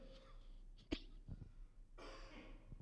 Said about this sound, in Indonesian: Sorry. Saya pikir hari ini udah gak bakalan batuk. Ternyata masih sorry.